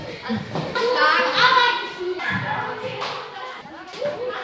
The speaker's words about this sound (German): Die Pause an der Marienschule Münster beginnt mit einem Gong, wie im Theater. Und genau wie dort die Zuschauer aus dem Saal strömen, drängen die Kinder jetzt aus den Klassenzimmern.